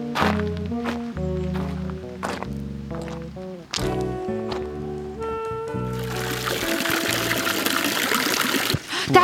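Water splashes steadily from a wooden fountain, a continuous splatter that grows fuller and louder toward the end, with scattered knocks and thuds in the first half.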